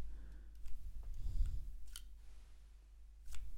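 A whole wrapped candy, still in its wrapper, being loaded into a plastic candy dispenser after its top is lifted: a soft crinkly rustle, then two sharp mechanical clicks spaced apart, fairly quiet, with no talking.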